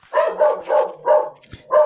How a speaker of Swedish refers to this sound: Det är någonting som skäller. Det är inte min hund för den här gångens skull. Eh, eh, den där är inte min heller, men skitsamma. den kan väl få skälla?